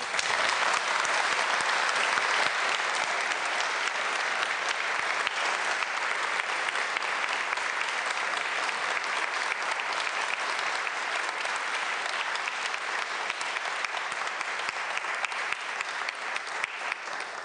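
Sustained audience applause fills the whole stretch, a dense, steady clatter of many hands clapping, holding loud and even before tapering slightly at the end; the applause is for a union shop steward.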